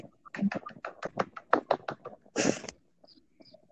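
A small group claps unevenly, a quick, ragged run of sharp claps over a few seconds with a denser burst near the end, then it trails off into near quiet.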